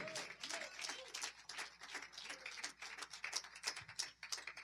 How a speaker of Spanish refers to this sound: Da un aplauso al Señor, aleluya, porque ha sido bueno.